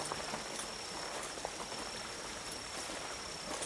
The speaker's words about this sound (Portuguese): Após mais ou menos uma hora e meia, quase duas horas andando pela trilha, vocês começam a ouvir ao fundo um barulho de água correndo no solo.